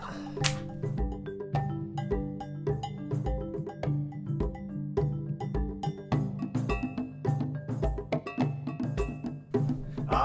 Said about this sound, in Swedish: Ja, och här så kommer vi höra lite afrikansk musik.